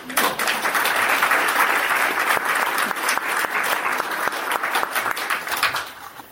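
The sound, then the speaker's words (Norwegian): Sustained applause from an audience, a dense wash of many hands clapping at steady loudness for about six seconds before tapering off at the end. “Det fortjener en applaus, syns jeg.”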